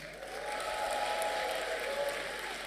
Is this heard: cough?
no